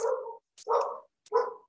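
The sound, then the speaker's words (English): A dog barks three times in quick succession, each bark loud with short silent gaps between them, no voices alongside. “Sorry, that's my dog.”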